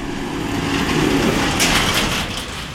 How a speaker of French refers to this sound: Et là, un beau tracteur, rouge passe avec une remorque et deux hommes dans la cabine.